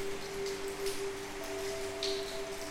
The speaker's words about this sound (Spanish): Me pareció pertinente grabar en este momento ya que me encuentro sentada en el balcón de mi hogar con una hermosa lluvia de fondo.